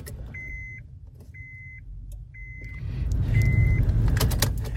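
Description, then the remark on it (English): A car's ignition chime beeps four times at a steady pace, then a low engine rumble swells up as the car is turned on and idles, on a freezing day of 32 degrees outside. “Let's let's turn the car on.”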